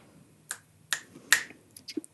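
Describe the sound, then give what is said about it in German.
Three crisp finger snaps ring out at a steady, slightly quickening pace, sharp, followed by a few softer clicks and rustles. “Schnips, wir wissen nicht, wie er heißt.”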